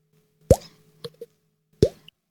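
Two distinct, hollow plops about 1.3 seconds apart, each with a quick upward pitch bend like a drop falling into water, with a couple of small soft clicks between them in otherwise quiet surroundings.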